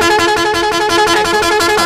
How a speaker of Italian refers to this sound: mettimi un attimo il clacson di Carlotta per cortesia, giusto per, uh, per farlo sentire